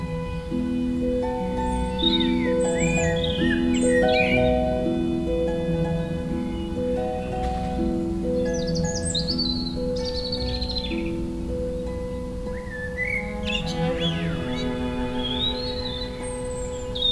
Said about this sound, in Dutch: Het mooiste aan die samenzang is misschien dat, dat je het gevoel krijgt dat eh, in jouw tuin de merel en de roodborst zich heel gelukkig en welkom voelen.